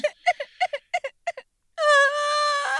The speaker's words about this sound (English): I know he talks beautifully, but you don't have to cry every time Jesus says something of profound wisdom.